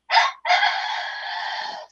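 A rooster crows once outside a window, a short opening note followed by a long drawn-out harmonic call, loud and clear with no talking over it.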